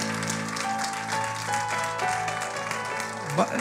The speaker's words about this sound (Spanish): ¿Cuántos dicen amén? ese aplauso fuerte a Cristo porque Él es bueno.